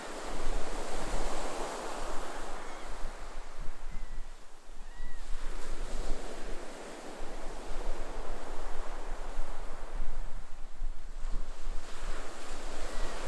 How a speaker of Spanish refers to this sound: A tu derecha, las olas del mar rompen con fuerza junto a ti. Por momentos sientes que el agua te llama a perderte en ella.